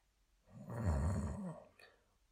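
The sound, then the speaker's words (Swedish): A voice imitates a monster that has fallen to the ground snoring: one deep, rasping, rumbling snore lasting about a second, loud, then fading into quiet. “Tills det föll till marken och började snarka.”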